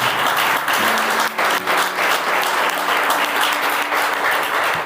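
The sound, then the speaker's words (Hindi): An audience claps loudly and steadily for several seconds, a dense wash of many hands with no pause, while a faint sustained tone hums underneath. “हाँ, हो जोर से ताली बजाइए”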